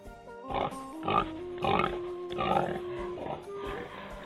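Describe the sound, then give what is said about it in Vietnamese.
A male pig raised by a Ha Nhi family in Vietnam, to be slaughtered for the Tet new year, grunts and squeals in a series of about six loud bursts roughly every half second, with a faint steady tone running underneath. “Cho dù giàu hay nghèo, vào ngày Tết, tất cả mọi gia đình đều mổ lợn đón năm mới.”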